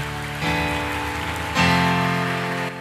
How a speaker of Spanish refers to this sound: Dele fuerte ese aplauso al Señor.